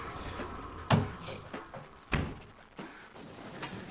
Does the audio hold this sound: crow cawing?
no